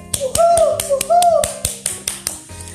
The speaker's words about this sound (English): Give it to him. With a big round clap of applause and a couple of whoos this morning.